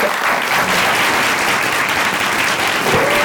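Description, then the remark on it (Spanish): An audience at La Teatrería applauds loudly and steadily for Odín Dupeirón, with dense, overlapping claps forming a continuous wash of sound that holds its level for the full three seconds, with no talking over it. “Un fuerte aplauso a mi amigo Odín Dupeirón.”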